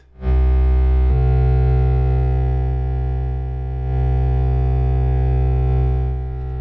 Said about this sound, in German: Also man, man hört jetzt diesen TV-Simulator. Wir hören jetzt das Licht. Genau, wir hören vom TV-Simulator das, das wechselnde Licht und zugleich wird es gefilmt.